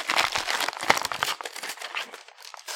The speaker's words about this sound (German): Jetzt raschelt hier mal die, schön in die, ins Mikro rein, sehr gut.